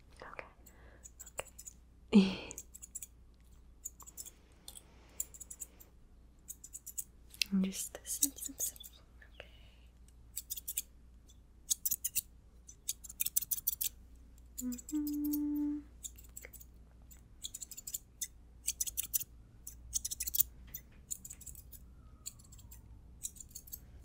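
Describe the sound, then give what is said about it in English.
Soft, crisp snipping of scissors trimming hair, a quick series of short metallic clicks in irregular bursts, with quiet whispering and faint rustles in between. “Just gonna take your hair. Quick trim.”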